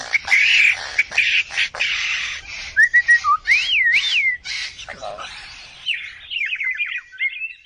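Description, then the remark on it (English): A greater coucal, a member of the cuckoo family, sings a loud series of varied whistles, rising and falling slides, and rapid chirping trills, with short pauses between phrases and no talking. “The bird is a sembagam, or the greater coucal, a member of the cuckoo family.”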